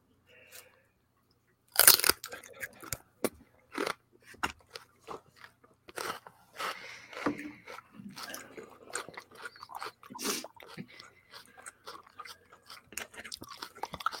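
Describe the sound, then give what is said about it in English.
Loud, sharp crunches of someone biting into celery, followed by a run of irregular wet chewing crackles. Mostly alone, with only faint hints of voice. “Get that celery, man.”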